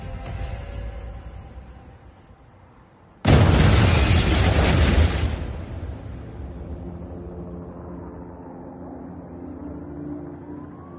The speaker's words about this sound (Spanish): La onda expansiva me sacó volando. Me quedé sin tímpanos, apenas escuchaba. Cuando paró todo el movimiento de la explosión y vi que estaba bien y miré el edificio, vi que aquello, la operación había acabado.